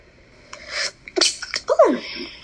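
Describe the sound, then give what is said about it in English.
A sharp sneeze preceded by a quick, breathy intake, followed by a few short sniffling breaths. No one speaks. “bless you. Thank you.”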